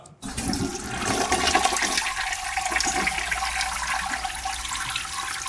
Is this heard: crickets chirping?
no